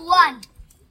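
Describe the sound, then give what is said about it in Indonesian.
A young child's voice, the guest's younger sibling, lets out a brief, high wordless cry that slides downward in pitch, followed by a couple of faint clicks and quiet. “Jadi guys, kalau misalnya ada suara-suara itu, itu suara …, adiknya. Ini sangat natural.”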